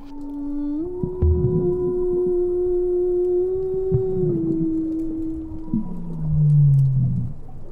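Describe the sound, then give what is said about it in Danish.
Recorded whale song, some of its frequencies too deep for human hearing: long, sustained tonal calls slide and hold in pitch, one moaning note after another, with a lower drooping call near the end over a murky underwater rumble. “At synge med hvaler”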